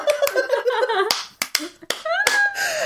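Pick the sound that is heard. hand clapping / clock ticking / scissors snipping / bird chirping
hand clapping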